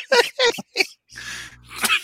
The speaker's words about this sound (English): The more you make me laugh, the more I cough.